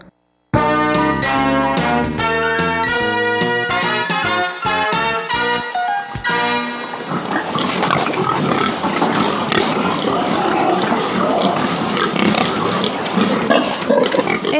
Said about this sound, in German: Es oinkt und quiekt auf dem Nutztiermarkt in Shulin, Neu-Taipei. Hier werden jeden Tag lebende Schweine von Züchtern aus ganz Taiwan versteigert und gekauft